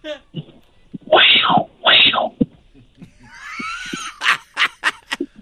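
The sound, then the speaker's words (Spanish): A person imitates a puma with two loud, drawn-out screeching yowls, followed by hissing and a rapid series of sharp, breathy bursts. “A ver, está haciendo el efecto de un puma.”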